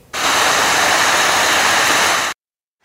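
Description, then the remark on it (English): A loud, steady roar of muddy floodwater rushing through a campsite in Monte Lake after heavy rain and hail, carrying sediment, rocks and lawn furniture, fills about two seconds, a dense hissing wash with no voices, starting and stopping abruptly. “Dramatic video of muddy water roaring through, carrying sediment, rocks, lawn furniture, even pets away.”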